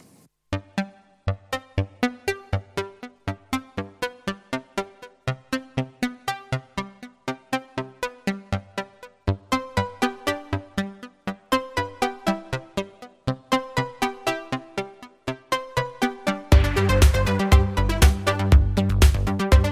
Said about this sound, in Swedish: låter ju som en smal eh, sågtand, eller säga fyrkant på en Pro One. Och jävligt snärtiga enveloper.